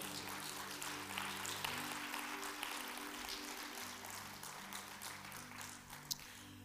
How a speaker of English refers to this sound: If you believe, clap your hands and give God praise. Amen.